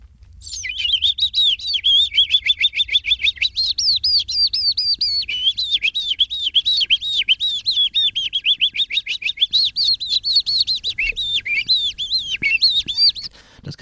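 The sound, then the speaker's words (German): A person whistles an imitation of a Eurasian skylark's song: a continuous, rapid stream of high, fluttering trills and chirps, loud, running unbroken for over ten seconds. “Also was ich immer gerne nachmache, ist die Feldlerche, mhm.”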